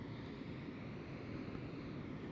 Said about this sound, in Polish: Przede mną jest ocean.